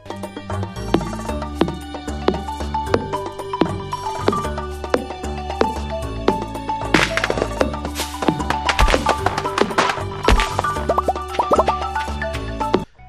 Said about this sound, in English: Just that that yes, the popping sound. Yeah, especially. the popping sounds when you're knocking down stuff and then collecting it all. It's it's like an ASMR video. God, it's so great.